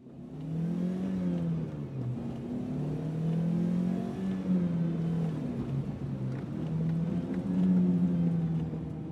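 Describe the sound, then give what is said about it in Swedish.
A car engine revs and pulls away, its droning pitch climbing and dipping through several gear changes, loud throughout with no voices; the car is driven toward Columbine High School around 11:00. “De har till och med tagit sig tid att äta frukost och ta det lugnt innan de runt 11.00 sätter sig i varsin bil och styr mot Columbine High School.”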